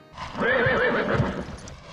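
A horse whinnies loudly, one drawn-out neigh with a quavering, wavering pitch lasting over a second, heard alone with no talking.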